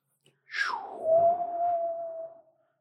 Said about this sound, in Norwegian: Utenfor veggene på et herskapelig hus hyler vinden.